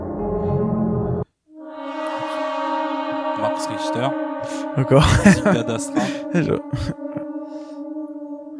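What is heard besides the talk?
film soundtrack music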